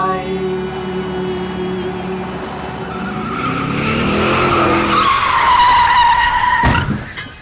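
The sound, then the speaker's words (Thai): A car engine hums, then tires break into a long, loud, wavering screech of skidding that ends abruptly in a sharp, heavy impact thump as the car hits the monkey Ling Pu. No one speaks. “ลิงปูโดนรถชน โอ้ยตายแล้ว”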